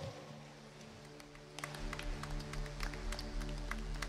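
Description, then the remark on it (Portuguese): An audience at a church service breaks into applause for the Lord as the pastor is welcomed, after a quiet start, many hands clapping in a dense, uneven patter over a steady, sustained low musical drone, with no one speaking. “Aplauda o Senhor.”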